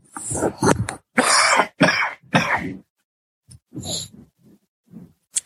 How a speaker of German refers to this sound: Jetzt muss ich mich einmal wirklich räuspern, weil die Erkältung drückt so sehr. Einen Moment bitte.